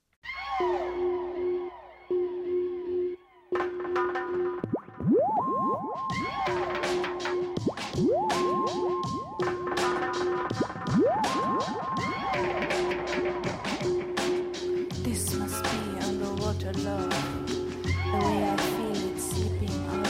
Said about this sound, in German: Und dazu gibt es ein bisschen passende Musik.